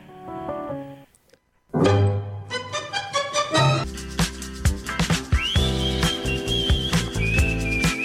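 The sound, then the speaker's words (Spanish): A song plays on the radio show Contrafoco on Radio Megafon: a brief soft opening, a short gap, then a full band with strong bass and rhythmic accents, a high whistling melody line gliding above it. No one talks. “Ahora vamos a escuchar un tema de ella, justamente.”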